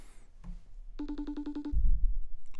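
A single short burst of electronic phone ringing, a quick trill of about seven pulses, followed by a low thump as if the line is picked up.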